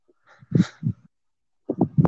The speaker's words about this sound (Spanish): Pues es que me dio risa porque escucho a tu perrito ladrando.